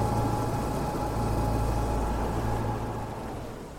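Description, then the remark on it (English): A steady, low boat engine drone hums continuously, with a broad rumbling wash and no clear breaks, fading slightly toward the end. “So here I am on the boat”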